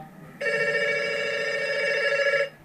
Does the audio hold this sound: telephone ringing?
yes